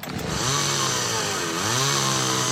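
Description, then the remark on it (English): A chainsaw engine runs loud, its pitch rising and dipping as the throttle revs up and down continuously, with no voices. “You wouldn't operate a chainsaw blindfolded.”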